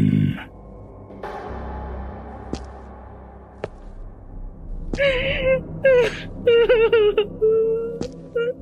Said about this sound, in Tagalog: mas lalo akong nahintakutan na nang makarinig ako ng isang boses. May babaeng umiiyak sa gitna ng dilim.